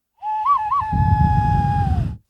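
A hollow, owl-like hand whistle blown into cupped fists: two quick warbling rises, then one long steady tone with a breathy rush beneath it, ending in a slight downward slide. Fairly loud.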